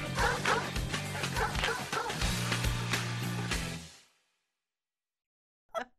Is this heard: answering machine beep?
no